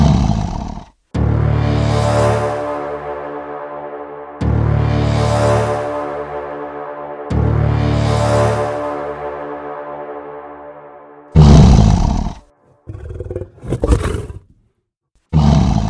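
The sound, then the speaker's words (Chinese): A tiger roars three times in long, loud, deep growling bursts, each lasting a few seconds, followed by shorter snarls and grunts. No one speaks. “就在少年派觉得快要撑不下去，准备要放弃的时候，突然从救生船覆盖的帆布下窜出了一只凶猛的老虎。”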